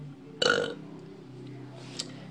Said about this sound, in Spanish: Mm, erupto, ¿eh? Eructo momento.